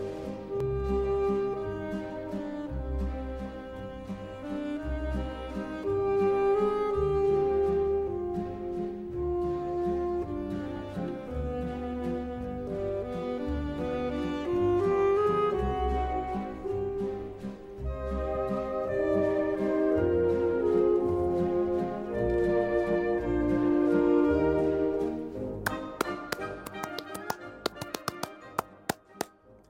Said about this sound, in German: Ein Welthit, der Walzer Nummer 2 von Dmitri Dmitrievich Shostakovich, einer der wichtigsten Komponisten des 20. Jahrhunderts.